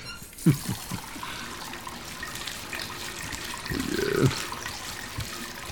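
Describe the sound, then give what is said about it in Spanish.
Water runs steadily from a tap for several seconds, a hissing stream broken by a few soft bumps and a brief louder gush near the end. No one speaks. “A ver, permítame ponerle un poco de agua en los ojos para que pueda ver.”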